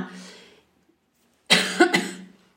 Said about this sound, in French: Tu vas pas couper à chaque fois que je tousse